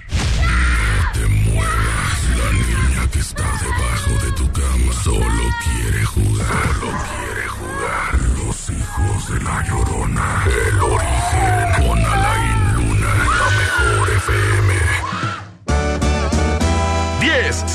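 A ghostly woman's wailing scream rises and falls in long, wavering cries over a low rumbling drone, loud, before breaking off abruptly into a short burst of music.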